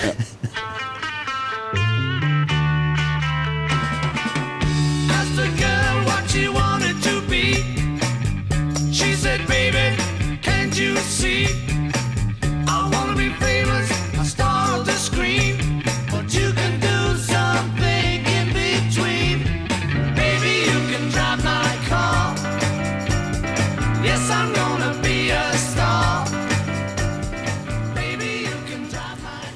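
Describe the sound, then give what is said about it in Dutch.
Music from a Rover 200 car TV commercial plays at a steady, full volume throughout, with a pulsing bass line under bright layered instruments and no voices. “Ja, dat brengt je even helemaal terug naar die campagne van die rover.”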